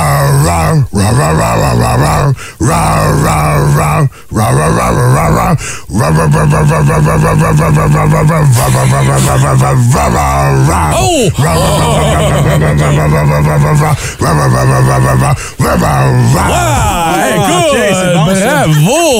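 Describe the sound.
A person imitates a bear's growl, loud, rough and drawn out in long sustained bursts with short breaths between, the pitch sliding and wavering throughout.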